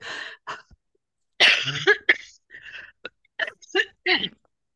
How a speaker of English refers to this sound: Sorry, I'm just recovering from a cough, so.